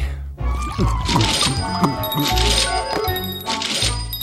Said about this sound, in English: enough with the bells. Sorry, I'm giving angels their wings.